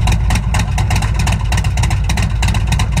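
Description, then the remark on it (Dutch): A Harley motorcycle engine idles loudly through an aftermarket Bassani muffler, a deep, steady low rumble with a rhythmic lumpy throb and no voices. “Ehm, dit, dit, dit is dezelfde Harley, alleen met een iets andere einddemper. Dus de Bassani-demper.”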